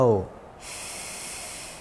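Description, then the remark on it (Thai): After a brief voiced fragment at the start, a deep, steady inhalation through the nose follows during a guided breathing meditation, a soft airy hiss that holds for over a second. “หายใจออก หายใจเข้า”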